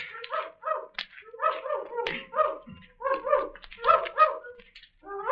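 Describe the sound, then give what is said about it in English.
Dogs bark in a rapid, continuous flurry of short, high-pitched yaps that overlap and tumble over one another, with no one speaking. “Horses, chickens, and now dogs.”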